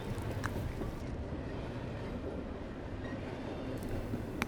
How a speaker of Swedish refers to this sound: Dörrarna stängs med ett pysljud och strax därefter rullar tåget iväg ifrån stationen.